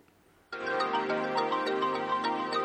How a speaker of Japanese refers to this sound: えー、すいません、もう一回戻りますけど、あの、1 曲目、まず、曲を聴いてほしいんですけど